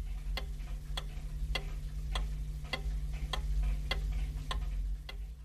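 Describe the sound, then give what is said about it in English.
A mechanical clock ticks steadily and evenly, about two crisp ticks per second, over a low constant hum with no voices. “With the growth of European cities and the rise of craft industries, a more ordered society was coming into being, ticking to the sound of the mechanical clock.”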